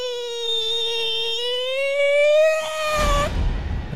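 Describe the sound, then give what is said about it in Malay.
A voice imitates a possessed woman crying out: one long, loud, high-pitched wail held for about three seconds, then breaking off into a harsh, breathy exhale. “tiba-tiba dengar this woman was crying and shouting macam”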